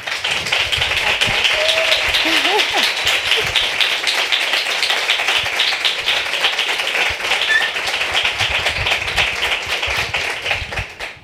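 Sustained audience applause in Madrid welcoming the first guest of the night, a dense crackle of many hands clapping steadily for about eleven seconds, loud and even throughout, with a few faint voices or whistles briefly poking through.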